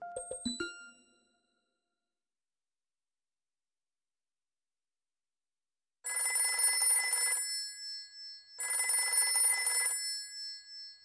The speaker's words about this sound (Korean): 조끼 단추를 푸는데 전화벨이 울렸다.